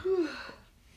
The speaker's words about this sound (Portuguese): Se você bocejar mais uma vez, acaba o podcast. Não, gente, é, é sono, acontece. Deixa eu bocejar.